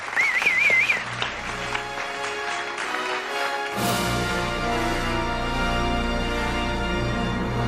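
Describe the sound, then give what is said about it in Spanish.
A burst of studio audience applause on RPA, the Asturian regional radio, greeting the film expert as he comes in, with a wavering whistle near the start, lasting a few seconds before music swells in and continues underneath. “Fuerte el aplauso para él, por favor.”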